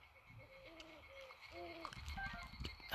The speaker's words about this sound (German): Oh, da hinten ist ein Vogel. Oh, Mist, hab ich bemerkt. Scheiß Vogel.